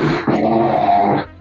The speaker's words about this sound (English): And who farted? They want nobody farted. I pulled my chair up.